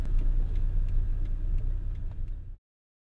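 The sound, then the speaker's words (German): A taxi drives through city streets from Neubau toward the Opera with a steady engine rumble and road noise, faint regular ticks sounding over it, before the sound cuts off abruptly near the end. “Dieser depperte Taxifahrer hatte fast 40 Minuten von Neubau bis zur Oper gebraucht.”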